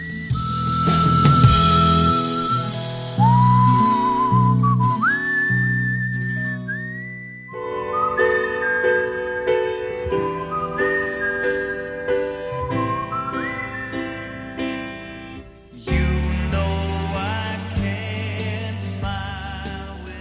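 A pop love song plays at a steady, full volume, its bright, high melody line gliding over warm chords and bass, with no one talking over it.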